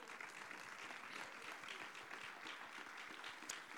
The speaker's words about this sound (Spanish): le damos un fuerte aplauso al Señor por eso.